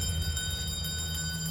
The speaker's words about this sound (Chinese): 突然间听到远方传出了铃铛声。